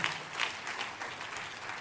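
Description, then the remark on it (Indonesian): A crowd claps steadily in applause for God, a dense wash of many hands applauding together with no pause, moderately loud and continuous throughout. “Tepuk tangannya boleh yang paling meriah buat Tuhan kita.”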